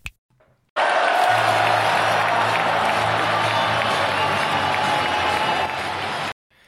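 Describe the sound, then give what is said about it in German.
A stadium crowd of football fans roars and chants loudly and steadily for about six seconds, a dense wall of voices with a low rhythmic chant underneath, then it cuts off abruptly. “Mit diesen Jubelgesängen begrüßen wir euch ganz herzlich zur 90. Folge von Hoffefunk nach unserem furiosen 5 zu 1 gegen Holstein Kiel.”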